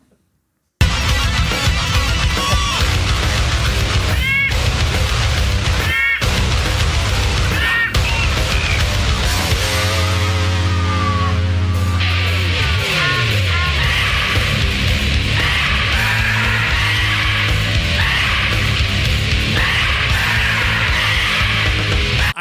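A parrot's harsh, repeated screeches ring out over loud, dense death metal music, with thick distorted guitars and pounding drums filling the whole recording.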